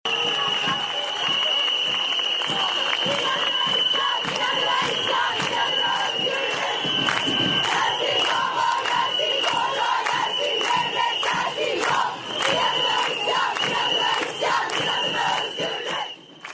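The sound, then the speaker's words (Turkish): A large crowd of women at a women's march against violence toward women chants slogans such as "inadına isyan, inadına özgürlük" in unison, loud and continuous, with rhythmic shouted phrases repeating over a dense wash of voices for the whole stretch. “Bu kadınlar bunu durduk yere söylemiyorlar ya da keyiflerinden bağırmıyorlar.”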